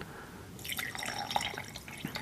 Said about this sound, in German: Komm mal, ich gieß mir mal was ein.